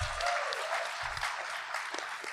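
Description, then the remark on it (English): A crowd breaks into applause, a dense wash of many hands clapping at once, steady throughout the short burst. “Don't clap yet.”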